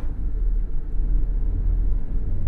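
A steady, low engine rumble fills the inside of a moving bus in Qatar, droning continuously at moderate loudness with no voices.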